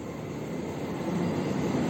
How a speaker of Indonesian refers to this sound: Oh, suara kereta.